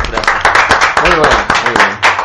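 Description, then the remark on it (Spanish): Quick, steady hand clapping closing the radio program Redoble Tambores, a run of sharp claps that goes on without a break, mixed with voices laughing and talking over it. “No, aplaudamos.”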